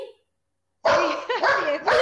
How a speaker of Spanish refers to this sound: Perdón, están los perros aquí enloquecidos.